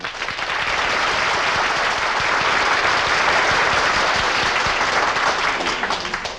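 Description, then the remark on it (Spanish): An audience breaks into sustained applause for the drivers of a car stunt act, dense and steady clapping for several seconds at a strong, even level before tapering slightly at the end. “¡Un aplauso!”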